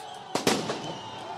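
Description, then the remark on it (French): Two sharp firework bangs, fired toward police at Place de la République, go off in quick succession, the second followed by a brief crackling tail, over a steady wash of outdoor background noise. “des tirs d'artifice qui sont tirés en direction donc des forces de l'ordre”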